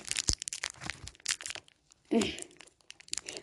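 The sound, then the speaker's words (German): Crinkly black plastic wrapper of a Center Shock Mr. Slimer candy being torn open, with a rapid series of sharp crackles and rustles, a brief pause, then a louder burst of crinkling and tearing. “Und zwar Center Shock Mr. Slimer. Ich habe keinen Bock darauf. Und es hat auch schwarze Verpackung.”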